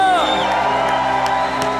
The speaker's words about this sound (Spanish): Da un grito de victoria. Dale fuerte ese aplauso al que vive. Amén.